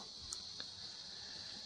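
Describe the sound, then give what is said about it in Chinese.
Cicadas drone outdoors in autumn in a steady, high-pitched buzz that never lets up, fairly quiet overall, with a couple of faint brief clicks near the start and no voices. “其实我不是故意的，这是外面。不断的有知了，知了”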